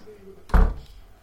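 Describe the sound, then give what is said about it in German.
A door swings shut with a single solid thud that rings out briefly, fairly loud, with nothing else happening around it, as a mother leaves the room. “Linus Mutter verließ das Zimmer.”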